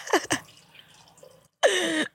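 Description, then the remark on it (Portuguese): Water pours into a glass, first in a quick splashy burst, then after a pause in a steadier, louder half-second stream with a gurgling, shifting tone. “A água que purifica.”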